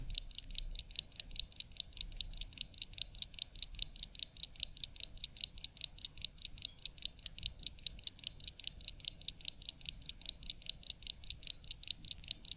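An old wind-up watch, held to the ear, ticking; the watch runs five minutes slow a day. A fast, continuous run of small, crisp, high clicks, several per second, with no voices and only a faint low hum underneath.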